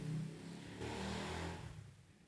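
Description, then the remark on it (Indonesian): A motorcycle engine hums past outdoors, its droning tone rising and then fading as it moves away, fairly quiet, with no one talking. “Nah, kalian dengar kan ada suara motor lewat.”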